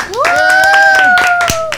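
A short burst of applause: scattered, irregular hand claps with a sustained, steady whistle or whooping cheer carried over them, fairly loud throughout.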